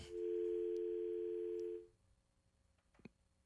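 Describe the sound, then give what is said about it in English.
A loud, steady telephone dial tone as a sports radio call with Yahoo Sports writer Nick Bromberg drops, humming continuously for nearly two seconds, then cutting off abruptly into near silence, with a faint brief click shortly after. “you will put him on hold there.”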